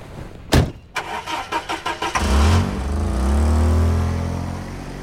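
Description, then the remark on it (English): A man gets into his red Jaguar on a wooded street in Arlington, Virginia, in February 1994: a car door thunks shut, the starter cranks in a quick rhythmic chatter, then the engine catches and rumbles into a loud, steady, throaty idle with a slight rev. “He gets into his red Jaguar.”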